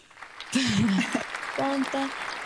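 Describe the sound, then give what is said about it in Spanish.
A short burst of applause sound effect played in the background, a dense crackle of clapping that rises suddenly and holds steady for about two seconds, with a voice sounding briefly over it. “Vamos a decirle a Mike que ponga unos aplausos ahí de fondo.”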